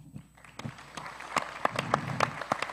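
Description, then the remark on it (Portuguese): A small audience at a live interview recording claps in scattered, uneven bursts of sharp hand claps that build slightly and keep going for a few seconds at a moderate level, with no one speaking. “palmas para todo mundo.”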